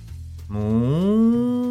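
A single drawn-out cow moo, starting as a low rumbling tone and then rising in pitch into a loud, steady bellow that holds for about a second.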